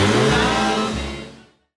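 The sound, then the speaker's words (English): A car engine revs loudly at a border crossing, its pitch rising and dropping in a quick surge before fading away over about a second and a half. “gets a little last word before he revs up the engine.”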